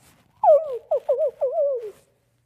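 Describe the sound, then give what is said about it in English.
A person imitates a coyote howl: a wavering, sliding vocal cry broken into about four yipping segments over a second and a half, with nothing else behind it. “They're relaxing in the evening, and all of a sudden, you know, there's a howl.”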